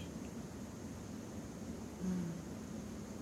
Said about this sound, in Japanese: うん、雨の音聞こえるかなすごいです。ね、でもこの雨の音も私結構好きなんですよねこのザーって言ってる